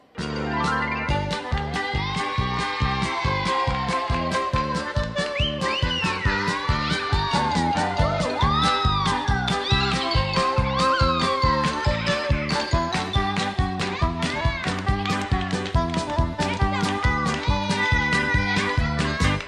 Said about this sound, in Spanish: Efectivamente, no termina y nosotros vamos a escuchar una rola que tiene preparada nuestra producción